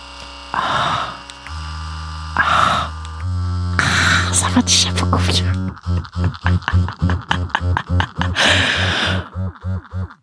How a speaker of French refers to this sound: Je vais vous faire écouter un petit bruit de Magic Wand. Vous allez voir comme ça détend.